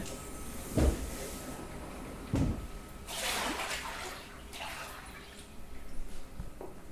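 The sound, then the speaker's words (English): Someone gets into a large flotation pod holding one foot of water with 500 pounds of Epsom salts dissolved in it, in a small soundproof room with the lights off: a couple of dull knocks, then gentle sloshing and swishing as the body settles, with a final soft bump. No one speaks. “and then turn off the lights and get into the pod.”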